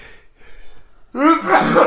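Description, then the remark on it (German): A single loud sneeze bursts out abruptly after a moment of near silence, a sharp voiced explosion of breath that trails off with a short rasp. “Gesundheit.”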